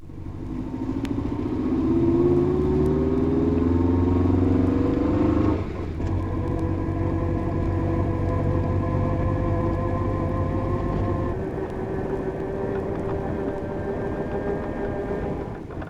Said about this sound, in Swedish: and now the back axle whine.